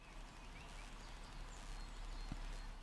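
Soft outdoor ambience out in nature in the Ruhr area, Germany: a small stream rushes steadily with a faint hiss, while a few birds chirp lightly in the background. No one speaks.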